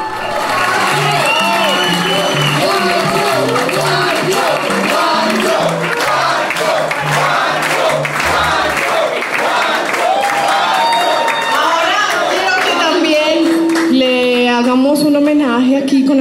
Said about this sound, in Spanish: pero sobre todo con la dicha de escuchar a un público fervoroso llamarlos por sus nombres.